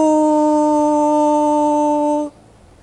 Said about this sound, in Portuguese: Somente três apitos separam a ilha de Goré da capital do Senegal, Dakar. E o terceiro já soou.